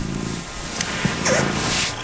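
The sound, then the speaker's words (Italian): A cat sound plays from a recording of animal sounds, with a brief, faint meow-like cry rising out of a steady low rumble and hiss, no voices present. “Eh, il gatto, il gatto ti rilassa.”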